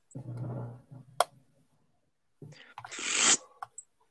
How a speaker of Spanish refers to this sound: Te puedo hacer también el sonido de unas cartas.